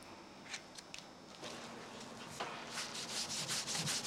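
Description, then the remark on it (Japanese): Blue juice taken from dayflower blossoms is rubbed into fabric through a paper stencil to mark the pattern in Nanbu shikon-zome purple-root dyeing: scattered soft, hissy scrubbing strokes that turn into a steady, quicker rhythm of brushy rubs toward the end, with no voices. “生地に型紙をのせ露草の花から取った青い汁で模様をすり込みます”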